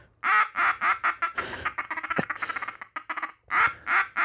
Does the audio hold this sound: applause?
no